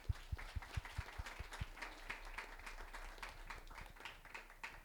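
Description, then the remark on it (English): A small crowd claps together in steady applause for the event's helpers, dense overlapping hand claps at moderate volume with a few distinct low thumps early on, continuing for several seconds without any voices. “Can we give all of them a round of applause, please?”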